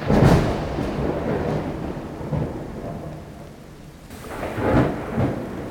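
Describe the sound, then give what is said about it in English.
A thunderstorm with lightning, a second wave of a fierce storm rolling in over a mountain path, rumbles with deep rolling thunder over steady rain, swelling loud at the start, easing in the middle, then building again into another heavy roll near the end. “And as the three of you take a moment to admire the view, a crack of lightning streaks across the sky. A second wave of that fierce storm is rolling in.”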